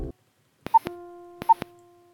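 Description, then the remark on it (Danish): A telephone ringing tone heard while calling: two short electronic beeps with sharp clicks, about three-quarters of a second apart, over a steady low tone on the line. No voices. “Hvis du synger med på, på den der tre øh, ventetone”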